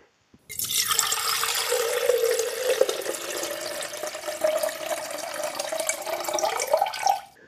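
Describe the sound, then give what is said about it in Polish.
River water flows in a steady rush on a cold day for about seven seconds, with a hollow gurgling tone that slowly rises in pitch before cutting off. No voices. “Wybrałem się dzisiaj znowu posiedzieć nad rzeką, ale kuźwa jest zimno.”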